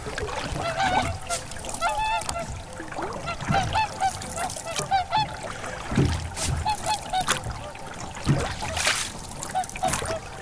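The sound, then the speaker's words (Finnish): Many swans call repeatedly across a lake, a steady stream of overlapping nasal, trumpeting honks, some loud and others fainter, rising and falling throughout with a soft watery murmur underneath. “Yllättäen nyt joutseni ei yleensä tähän aikaan tuu niin paljon tähän vielä.”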